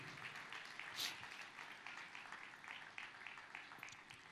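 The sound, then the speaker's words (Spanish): Sustained applause of praise for the Lord from a crowd after a prayer, a dense, steady patter of many hands clapping throughout, with one brief sharper burst near the start and no clear talking over it. “Fuerte ese aplauso de alabanza para el Señor.”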